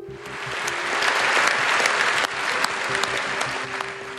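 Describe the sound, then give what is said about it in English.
Italian parliamentarians give Mr. Draghi a lengthy round of applause, a dense, steady wash of clapping with scattered sharper claps poking through, holding loud and even with no voices audible. “Those parliamentarians gave him a lengthy round of applause.”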